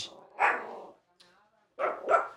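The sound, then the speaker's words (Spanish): A pitbull barks in short, loud bursts at a drive-through: one bark, a pause with a faint whine, then a quick double bark, clear. “Después eh, pues, tenemos el pitbull acá. Sí, el pitbull, papi.”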